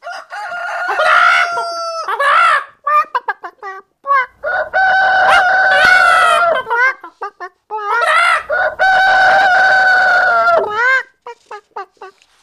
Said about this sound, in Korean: 몇 년 전 아는 분이 토종닭으로 암탉 다섯 마리와 수탉 두 마리를 주셨는데 수탉이 자기들끼리 엄청나게 쪼면서 발로 짜고 차고 막 싸우는 거예요.